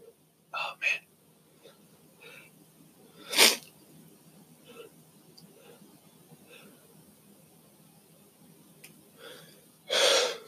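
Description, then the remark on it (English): A few short, sharp gasping inhales come in uneven bursts, breathy, as someone builds toward a sneeze that never arrives; the stronger catches are separated by quiet pauses. “Oh my god, sneeze is not coming.”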